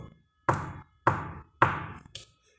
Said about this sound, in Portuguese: Estão batendo na porta, ó.